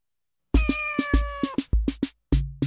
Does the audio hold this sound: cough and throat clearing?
no